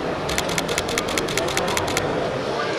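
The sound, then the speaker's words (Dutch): A Canon camera shutter fires in rapid burst mode, about fifteen crisp mechanical clicks in quick, even succession over a steady background hiss, then stops abruptly, leaving only the hum. “We gaan even luisteren naar het geluid als de Canon in burst mode schiet.”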